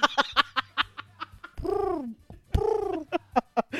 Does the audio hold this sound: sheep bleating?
no